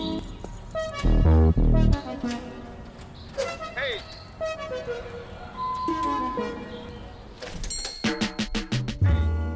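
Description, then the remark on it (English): A McLaren sports car winds down as its ignition is cut, followed by short electronic chimes, a whirring motor and a door as the driver gets out, with a voice and musical tones mixed in. “we heard … cut the ignition of his McLaren sports car and exit the vehicle”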